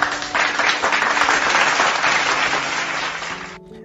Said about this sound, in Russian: Аплодисменты же.